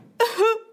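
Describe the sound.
A voice imitates its own panicked crying sob: one short, sharp, choked vocal burst, fairly loud, with a strained voiced wail that trails off quickly.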